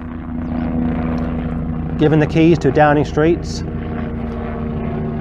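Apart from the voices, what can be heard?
helicopter flying overhead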